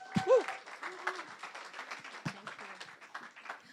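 An audience breaks into a round of applause, dense overlapping claps crackling steadily for several seconds, with a brief voice or cheer rising over the clapping near the start.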